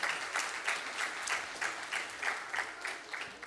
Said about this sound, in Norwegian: Og jeg syns at vi skal klappe for dem